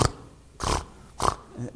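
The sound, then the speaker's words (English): A person imitates a horse snorting: two short, breathy, forceful snorts about half a second apart, fairly loud, with quiet gaps between them. “You know, you know, have you ever seen a horse that snorts?”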